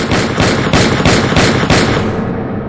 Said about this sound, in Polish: Na nocnym stoliku leży rewolwer. Zdesperowana kobieta chwyta za niego i woła: Zabiję się! Zabiję się przez ciebie! Jednak nie celuje w siebie, a w boja. Oddaje w jego kierunku siedem strzałów.